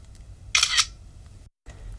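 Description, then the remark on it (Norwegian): A camera shutter fires once for a selfie taken on arriving late to a lecture, a bright, crisp mechanical snap with a quick double-click texture, standing out loudly over a low background hum with no talking. “Jeg skal bare ta en uh, for sein selfie.”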